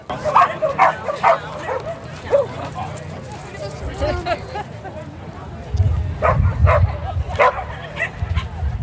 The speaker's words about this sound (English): In addition to getting to talk with some amazing owners and some amazing businesses and nonprofits working to serve corgis and similar animals, I also got to hear from some of the dogs themselves. Those sniffs came from some very cute corgis,